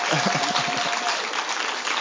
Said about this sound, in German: geben mal einen Applaus für Jesus.